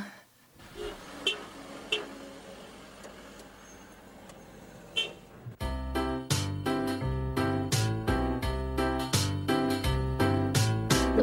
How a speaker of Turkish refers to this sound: bir çocuk şarkısı da olsun cıvıltılı bir şarkı dinleyelim evet.